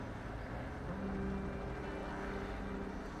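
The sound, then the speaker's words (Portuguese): A helicopter landing: a steady, dense low rumble of engine and rotor with a faint humming whine on top, holding constant for the whole stretch, no voices. “Olhando para o teto enquanto escutava aquele helicóptero pousar, pensou com ele.”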